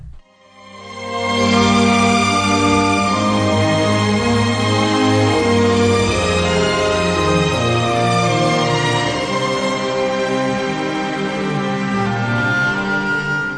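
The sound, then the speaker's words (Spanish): A lush, slow orchestral love theme from a film soundtrack swells in after a brief quiet start and sustains at full volume with rich, held chords, no voices present. “y se convierte en un tema de amor de fondo, que es este que va a sonar.”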